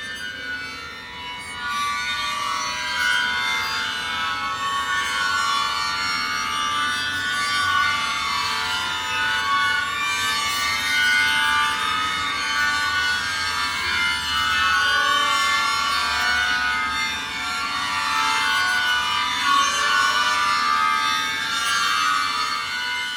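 Fullman's long string instrument, two planes of strings 50 to 100 feet long mounted at waist level, played by walking between the rows pressing the strings with rosined fingers, sustains a dense, shimmering drone of bright, rasping overtones, holding a steady loudness throughout without any voices.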